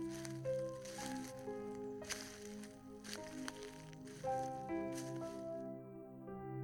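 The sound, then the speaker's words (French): Soft, squishy footsteps of someone walking very gently on a lawn behind the listener, roughly one per second, muffled, heard beneath a sustained gentle musical accompaniment. “Tu entends derrière toi quelqu'un marcher tout doucement sur la pelouse.”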